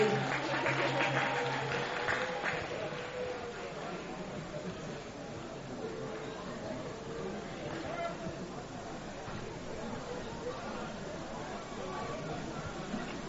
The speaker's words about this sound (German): Ja, ein Applaus für die zwei. Komm, sie haben sich vertragen.